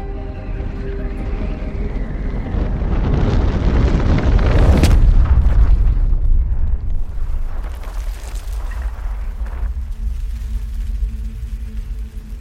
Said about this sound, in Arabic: الصوت اللي انت لسه سامعه ده يا مستمعي هو صوت حجر اترمى على الارض